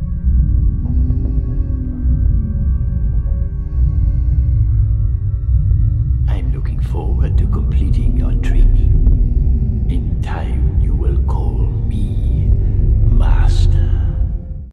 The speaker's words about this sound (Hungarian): és mindezzel egyidejűleg a Jedi visszatér is megkapta ezt a hangot. A császár tróntermében hallható ugyanez a búgás, szintén csak 2011-től korábban ez nem volt ott.